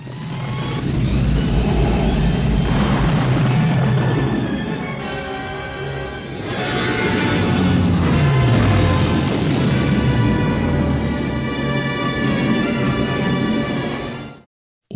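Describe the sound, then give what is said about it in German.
A loud, continuous engine roar with a rising whine from the Falcon spaceship's engines as it sweeps past and lifts off in a film scene, swelling, pitch sliding as it climbs away, sustained for about fourteen seconds before cutting off abruptly. “und erhört die Triebwerke des Falken.”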